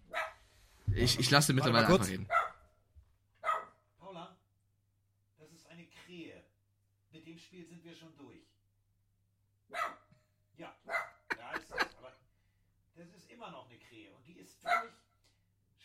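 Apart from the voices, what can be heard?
dog barking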